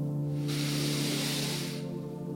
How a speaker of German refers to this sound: Wir beginnen mit einer ganz einfachen Atemübung Einatmen